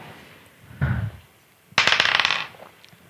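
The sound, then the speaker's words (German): Dice clatter onto a hard table, rolled for a 'Motiv erkennen' (sense motive) check and landing on a 20: a short low thump, then a louder burst of rapid rattling clicks lasting under a second before settling, with no talking. “du, möchtest du auf Motiv erkennen ja. würfeln?”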